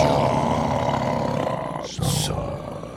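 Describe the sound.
A person imitates a tiger's roar, a loud, rasping growl held for about two seconds, then a brief break and a short, harsh final burst.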